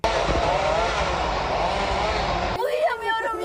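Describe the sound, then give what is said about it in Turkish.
Chainsaws cutting pine trees in Akbelen, Turkey, roar loudly and steadily, a dense, buzzing engine whine cutting through wood, then abruptly give way to a voice speaking in the final second. “Elektrikli testere sesleri daha yüksek yankılanmaya başladı.”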